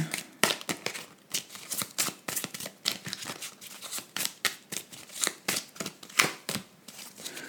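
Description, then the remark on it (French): A deck of tarot cards being shuffled, with a steady run of quick, crisp papery riffles and slaps repeating for several seconds, no voices over it. “Attends, je vais juste confirmer avec un tarot, avec un autre tarot.”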